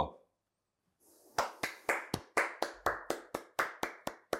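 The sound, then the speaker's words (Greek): One person claps alone in a steady rhythm, about a dozen sharp, crisp claps at an even pace after a brief quiet start, each one bright and snappy with a quick decay. “ένα άτομο μόνο χειροκροτάει.”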